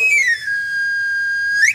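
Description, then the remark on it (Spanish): A knife sharpener's pan pipe whistle as the sharpener arrives in the neighbourhood by bicycle with a sharpening stone, offering to sharpen knives and scissors: one loud, high, sustained tone that slides down at the start, holds steady, then sweeps sharply upward at the end, heard alone over a faint low rumble. “Llegando al barrio vecina, afilo cuchillos, tijeras, cuchillas asadas, siempre listo y afilado el afilador.”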